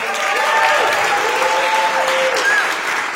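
Steady, dense, loud applause from a sizeable audience for a man invited up to be put in the spotlight fills the whole stretch, with a few faint whistles or cheers rising briefly above the clapping.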